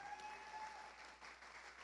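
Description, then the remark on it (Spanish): An audience claps steadily as applause for the Lord during a sermon, a dense wash of many hands sounding together for a couple of seconds at a fairly even, moderate level, with no voices standing out. “Era una gran oportunidad de darle un aplauso al Señor, buena gente ahí”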